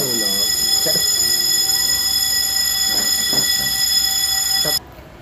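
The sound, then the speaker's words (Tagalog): A fire alarm in a condominium building blares with a loud, steady electronic tone that continues unbroken, then cuts off abruptly near the end; it turned out to be a false alarm. Brief voices can be heard faintly beneath it. “So we're gonna resume our podcast because of the incident happened na biglang nag fire alarm po dito sa condo namin.”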